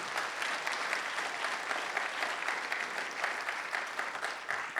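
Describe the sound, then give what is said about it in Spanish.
A church audience applauds steadily at a morning service as an offering of praise to God, a dense, even wash of many hands clapping at a sustained, moderately loud level with no voices standing out. “Regálele esa ofrenda de palmas al rey esta mañana.”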